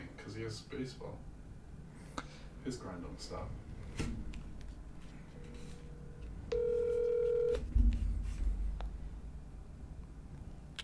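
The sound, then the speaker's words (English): A phone dialing out: a short electronic beep, then a steady, loud call tone lasting about a second, over muffled background chatter and handling noise. “Tell him to answer his phone.”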